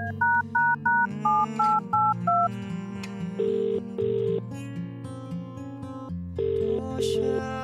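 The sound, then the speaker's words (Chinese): A quick run of about seven evenly spaced dual-tone keypad beeps dials a phone, then two pairs of steady ringback tones buzz with no one answering, with soft music playing underneath throughout. “他也没接电话。”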